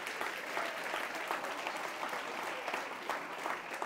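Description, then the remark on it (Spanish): Steady applause from an audience, many hands clapping in a dense, continuous patter at an even level throughout, with no talking over it. “Usted no va a aplaudir a Dios ahí ese...”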